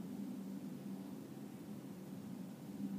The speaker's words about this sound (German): Das ist auch irgendein Flugzeug oder so? Ja.